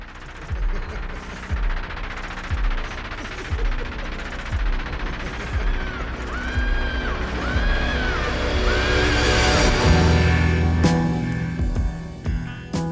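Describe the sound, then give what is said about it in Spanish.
A reversed piano chord swells steadily louder amid dense, busy music, building to a peak before a wild, high scream cuts through near the end. “y a través de todo el tema hay un acorde de piano al revés. O sea, que el ataque está al final, ¿no? Entonces suena como un crescendo. Hasta que llega el, grito de locura y entra la canción siguiente, ¿no?”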